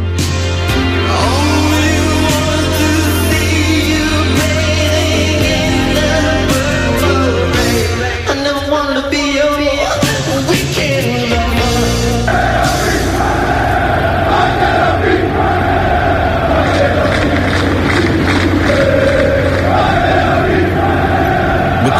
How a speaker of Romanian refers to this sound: E ziua clubului rapid și fanii s-au adunat și au sărbătorit la stadionul aflat în reconstrucție